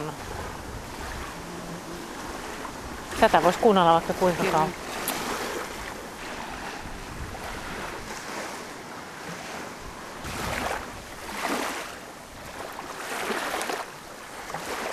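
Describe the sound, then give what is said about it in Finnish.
Wind-driven waves wash steadily against the shore in broad, rushing surges, with gusty wind noise throughout and a brief spoken remark partway through. “Tässä on jotain tässä kun tuulee aallot, niin jotain todella rauhoittavaa vesi on meidän rauhoittava elementti.”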